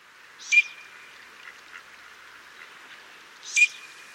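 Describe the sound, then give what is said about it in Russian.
A male Eurasian teal gives two short, high whistled calls about three seconds apart, clear, with faint background hiss and no talking. “Послушайте, например, какие звуки издает самец черка свистунка.”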